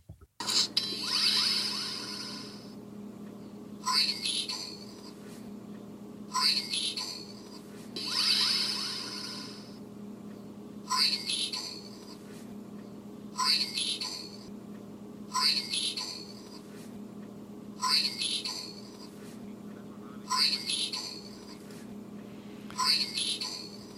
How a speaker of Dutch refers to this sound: nu brainstorm horen, dan hoor ik brainstorm. Kies ik, ik ga nu Green Needle horen, dan hoor ik Green Needle. En eh, terwijl dus het geluidsfragment exact hetzelfde is.